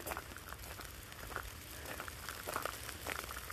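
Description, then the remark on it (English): Rain falling outdoors: a steady, soft hiss of rainfall dotted with scattered patters and drips, fairly quiet and even throughout, with no voices. “Or maybe I'm going to go back in the house because it's frickin' raining.”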